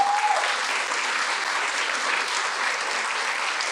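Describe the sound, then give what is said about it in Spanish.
Sustained applause from a crowd clapping for the Lord, a dense, even clatter of many hands that holds steady at full strength for the whole stretch, with a brief faint tone at the very start. “Bueno, aplaude al Señor si quieres.”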